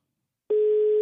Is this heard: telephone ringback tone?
yes